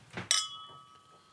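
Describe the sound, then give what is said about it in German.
A single bright clink of glasses touching in a toast, clear, with a pure ringing tone that lingers and slowly fades for about a second. “Aber dann Prost.”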